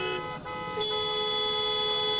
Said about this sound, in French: En sortant du métro, je remarque un embouteillage monstre. Je ne l'avais pas remarqué. J'étais bien trop plongé dans mes pensées. Le trafic est à l'arrêt. Un concours de klaxons se fait entendre proche du carrefour vers lequel je me dirige.